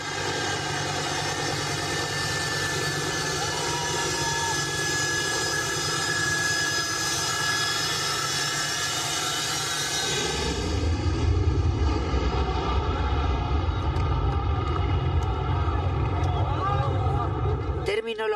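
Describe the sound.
Loud, steady aircraft engine roar with strong tonal whine from a full evacuation flight in Afghanistan, continuous; around the midpoint the high hiss drops away and a heavier low rumble takes over. Voices are faintly mixed in.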